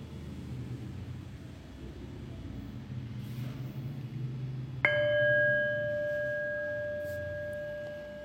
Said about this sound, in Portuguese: E daqui a pouco, então, eu vou convidar o sino a soar para que a gente possa interromper formalmente esse período de prática.